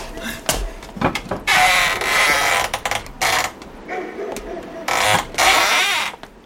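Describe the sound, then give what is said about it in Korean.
The unlocked front gate of a family home in the countryside creaks open on a dark winter evening in several drawn-out, grinding squeals, loud, with short pauses of clicks and rattles between the longer creaks. “대문은 잠겨 있지 않았다. 대문을 열자 기다렸다는 듯 할머니가 문을 열고 뛰쳐나왔다.”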